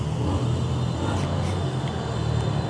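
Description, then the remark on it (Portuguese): Loud, continuous engine roar from motorcycles of a motorcycle convention on the road, a dense low rumble with rising and falling revs as several bikes pass by steadily, one rider with no hands on the handlebars. “Porra, é convenção de moto, viado.”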